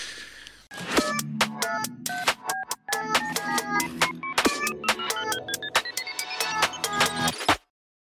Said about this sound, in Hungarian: aki nem halkította le a telefonját. De most megteszem, és elnézést hát kérek a hiba.